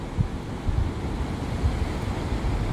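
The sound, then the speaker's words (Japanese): A steady wash of outdoor water noise with low rumbling swells, small waves lapping at a seashore where people are fishing, mixed with wind buffeting the microphone; no voices. “こんな波打ち際で釣れるんだねお魚が動物の森では釣れるけどさはいということで海岸からちょっとお届けしてみました。”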